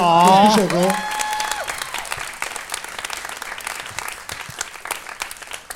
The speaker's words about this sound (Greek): Ένα χειροκρότημα για τη μαρμελάδα, παρακαλώ.